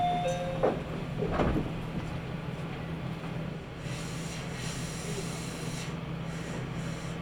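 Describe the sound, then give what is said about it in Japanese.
Train doors slide open at a station platform with a brief rattling clatter near the start, followed by a steady low mechanical hum and soft hissing that carries on throughout. “開きますご注意ください”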